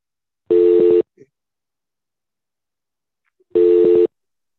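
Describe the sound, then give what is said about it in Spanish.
Two identical electronic telephone tones sound a few seconds apart, each a steady, buzzy half-second beep, clear and fairly loud, with silence between them and no talking. “A ver el teléfono ese, por favor.”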